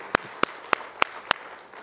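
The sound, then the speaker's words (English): Congregation hand clapping: five sharp, evenly spaced claps in a steady rhythm, rising above a soft, continuous wash of background noise, with no talking. “Let's give him one more hand clap, please.”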